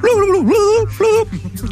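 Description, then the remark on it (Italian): A loud voice mimics a soft tongue lapping, with a few quick, wobbly vocal pulses in a rapid rhythm, trailing off at the end. “E tu senti una lingua felpata, morbida, che ti smangiucchia la vagina.”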